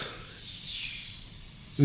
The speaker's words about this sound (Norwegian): Det vi gjør, er å spraye godt